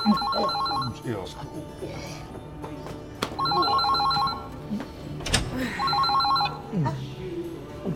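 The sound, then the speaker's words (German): A telephone rings in three evenly spaced bursts of a warbling electronic tone, heard down the line on an outgoing call while waiting for an answer, with low background murmur and clatter between rings. “Ich muss nämlich telefonieren.”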